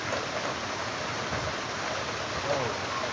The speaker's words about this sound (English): Oh my goodness, it just started coming down, y'all. The rain was coming down.